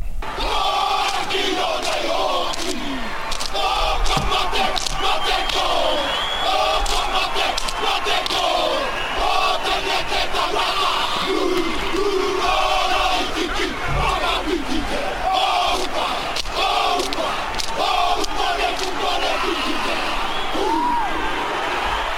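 A rugby team's war chant: many voices shouting and chanting together in forceful rhythmic bursts, with crowd noise underneath, loud and sustained throughout.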